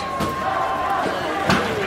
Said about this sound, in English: people are throwing throwing stuff at the uh, windows and doors. Broken windows at the Atlanta Police Foundation headquarters.